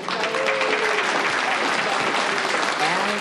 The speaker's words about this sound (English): Let's give Kelly a round of applause for some darn good reading.